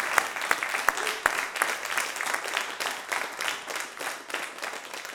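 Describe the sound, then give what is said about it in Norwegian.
An audience at Dramatikkens hus applauds steadily at the close of a talk, a dense patter of many hands clapping at an even level, with a few sharper individual claps standing out at the start. “applaus atter en gang.”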